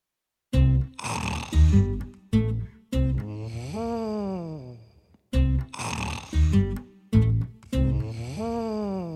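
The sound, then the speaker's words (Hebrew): A voice imitates an elephant asleep on a path snoring, in a read-aloud of the Hebrew children's book 'Pil Yashen Al HaShvil': two loud cycles, each a rough, snorting inhale followed by a long, wavering, sighing exhale that rises and falls in pitch. “פיל ישן על השביל.”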